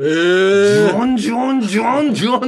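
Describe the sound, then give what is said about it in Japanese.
A man's voice loudly imitates an Indian cicada's buzzing call, a droning, nasal whirr repeated in about four quick, wavering pulses. “こんな、これ、セミの音ですかって聞いたんだから、これ、あまりにもセミの声っぽくない音。”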